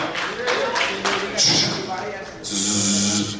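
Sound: vacuum cleaner running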